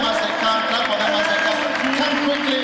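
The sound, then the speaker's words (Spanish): An audience applauds steadily for people coming to the front to be prayed for, a dense, continuous wash of clapping blended with crowd voices and a sustained tonal hum underneath, holding an even loudness throughout. “Aplauden, aplauden por ellos al venir.”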